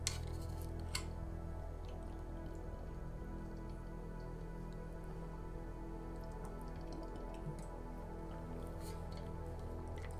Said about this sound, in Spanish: Por cierto, voy a hacer lo siguiente. Voy a tomar agua. ya llevo casi tres horas hablando.